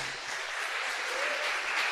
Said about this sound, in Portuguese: Dê um forte aplauso a ele.